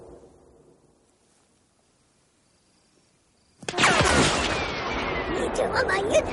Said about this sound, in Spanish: El disparo dio en el tronco. Leia y el Ewok se ocultan tras él.